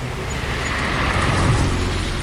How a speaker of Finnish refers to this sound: soikaa aivan kauhea liikenne tässä kaupungin keskustassa